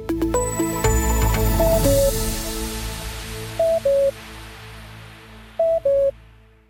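A modernized radio cuckoo signal, used to fill the time when a song ends before the hour: a bright synthesized chord flourish, then three evenly spaced two-note falling cuckoo calls, clean and electronic, with no talking.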